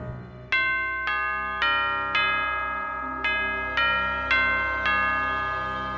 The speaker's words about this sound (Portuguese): No dia em que eu saí da maternidade e voltei para casa, eu tinha acabado de me deitar, quando de repente a campainha tocou.